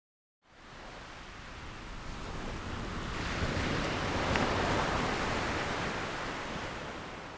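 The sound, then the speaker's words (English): Steady, dense rainfall hisses continuously after a brief moment of silence, swelling slightly louder midway with no voices. “Let's meditate now to Get Sleepy to the Sound of Rain by Billy Gill.”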